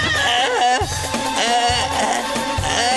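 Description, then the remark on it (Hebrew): A voice imitates a feeble, strangled scream, a thin, wavering, bleat-like wail that rises and cracks repeatedly over steady, pulsing background music, fairly loud. “אני אוהב קול של יהוד, שהם אחרי הפיגוע מנסים לצעוק ויוצא להם משהו כזה.”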